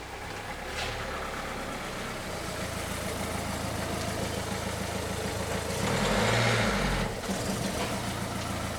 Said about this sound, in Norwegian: Nå hører jeg en bil.